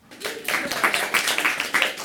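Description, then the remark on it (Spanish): A short burst of applause from a group for a girl carried down by a firefighter, dense overlapping claps with a few sharper accents rising and falling over about two seconds, with no voices. “Luciana bajó en brazos del bombero y todos los aplaudieron.”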